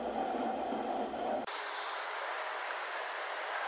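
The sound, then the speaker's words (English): A train carriage rumbles steadily along the rails, a continuous dense noise, its low rumble dropping away abruptly partway through while the hiss carries on. No one speaks. “It's just been very, it's been very eerie here on the on the train.”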